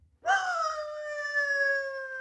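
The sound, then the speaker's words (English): A three-quarter Irish setter in Manchester Village, Vermont, lets out one long, mournful howl, fairly loud, rising briefly at the start and then holding a steady, whining pitch for about two seconds. No one speaks. “Jacko, the three quarter Irish setter. A good dog, usually a well behaved dog”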